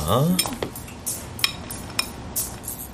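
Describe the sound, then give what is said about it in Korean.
Cutlery clinks against a salad plate at a salad bar late in the evening, a series of sharp, bright taps spread over a few seconds, with faint background murmur and no clear speech. “계산을 하고 나서 샐러드 접시와 토마토 주스를 들고 빈 테이블에 앉는다.”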